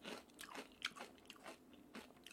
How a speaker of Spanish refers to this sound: Pero ya, ya voy a dejar de comer pinches